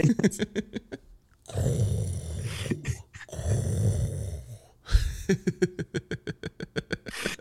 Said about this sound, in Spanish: Pensé que me iba a comer. Dice, me puse, me puse mis tapones, me puse mis AirPods en modo así de cancelación de ruido y se sentía que todavía me estaba roncando.